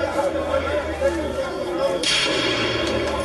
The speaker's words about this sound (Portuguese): Esse tiro foi ele atirando contra os colegas. Contra os colegas. Um policial com fuzil como arma atirando contra os colegas.